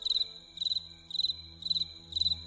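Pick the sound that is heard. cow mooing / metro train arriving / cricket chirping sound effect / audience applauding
cricket chirping sound effect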